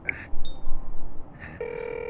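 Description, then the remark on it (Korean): A phone is dialed to call a police detective on speakerphone: a quick series of short electronic beeps, then a steady ringing tone starts and holds. The sounds are clear, with no talking over them. “전화 좀 해봐.”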